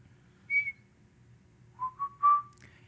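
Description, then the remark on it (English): A person whistles a short tune, a few clear notes rising and falling in pitch, fairly loud against a faint low hum, with no talking. “I was trying to like whistle the tune and then have everyone pick it up.”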